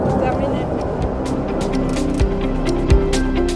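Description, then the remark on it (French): A train in a salt mine rumbles out of a tunnel, heading back up to the surface: a loud, steady low roar with intermittent sharp metallic clacks and a faint, thin squeal hovering above the rumble. “Pour info, un train sort de l'abîme.”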